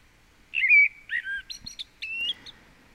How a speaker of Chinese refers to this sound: 在船上，在水上，一起玩，一起听到鸟叫